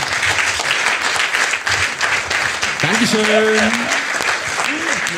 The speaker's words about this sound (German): Macht einfach mal Applaus